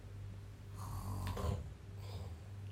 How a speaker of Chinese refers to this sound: 到时候别打呼了。